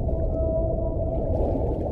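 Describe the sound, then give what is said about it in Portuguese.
A whale's drawn-out tonal call, recorded underwater by a hydrophone, holds steady over a dense low underwater rumble for the whole two seconds. It is fairly loud, with no voices. “Por exemplo, as baleias têm algumas, alguns comportamentos em termos acústicos ou bioacústicos que têm como fim comunicar com outros pares eh, para casalamento ou para socializar.”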